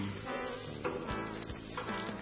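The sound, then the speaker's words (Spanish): A steady, dense crackling and hissing of fire as a jungle burns in a children's room, with scattered sharper pops like wire casings bursting breaking through the continuous sizzle. No voices. “En el cuarto de los niños ardió la selva.”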